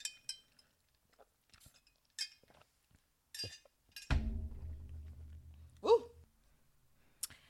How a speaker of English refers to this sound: Let me take a sip of water really quick.